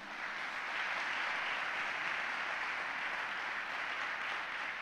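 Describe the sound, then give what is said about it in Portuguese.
An audience bursts into sustained applause for the Lord, a dense, steady wash of many hands clapping that holds at an even, fairly loud level for about five seconds with no voices standing out. “Quem aplaude ao Senhor por isso?”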